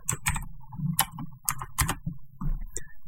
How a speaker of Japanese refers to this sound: 歌詞を検索しましょう。キーボードうるさいですね、これ。